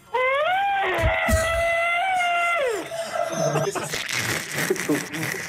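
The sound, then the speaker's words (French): A man imitates an elephant's trumpet with a loud, sustained, brassy vocal blare lasting over two seconds, followed by laughter and chatter from a crowd. “Le bruit du barrissement de l'éléphant.”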